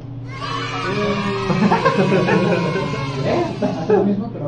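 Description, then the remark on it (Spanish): A crowd of children screaming together in a loud, continuous burst of high, overlapping shrieks and yells, surging in intensity for a few seconds without pause. “Mira, güey, te voy a poner a ti el sonido de los niños gritando”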